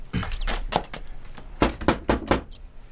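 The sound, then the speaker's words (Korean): A series of sharp knocks on a door, a few uneven raps followed by a steadier run of four firm knocks, with no voices. “문을 두드려보자.”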